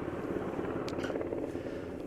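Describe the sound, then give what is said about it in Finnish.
A large NH90 helicopter approaching a disabled ship, just under two hundred metres away, drones steadily, its low rotor rumble and engine whine continuous throughout, with a couple of brief higher hissing bursts. “Kyllä tuo NH90 on erittäin kookas, kookas ja voimakas helikopteri, että tietysti kun on tämmöiseen puolustuksellisiin tarkoituksiin rakennettu, niin ominaisuudet on myös sen mukaista.”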